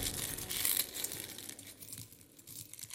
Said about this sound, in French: Et cependant, tandis que je plongeais dans cet escalier de noir cauchemar, je pouvais entendre broyer des os.